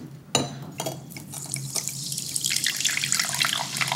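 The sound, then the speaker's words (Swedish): A drink pours steadily from a bottle into a large glass, a continuous splashing trickle that starts with a small clink and carries on for several seconds, with no talking. “Det låter som att det hamnar i glaset.”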